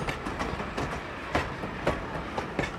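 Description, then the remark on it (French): A train rumbles steadily along the tracks, its wheels clattering in a repeating clickety-clack rhythm with sharp periodic knocks over rail joints, heard from inside a carriage with no voices. “À bord des trains, par exemple.”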